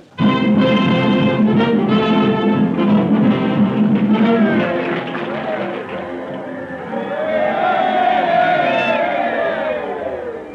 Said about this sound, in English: Listen to their cheering section. Yay, Flatfoot!